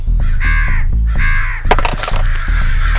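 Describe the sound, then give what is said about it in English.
Two loud, harsh crow caws ring out one after another, followed by a busy burst of scratchy, fluttering commotion that keeps going to the end, as the crows attack. “The Blood Crows continue the attack.”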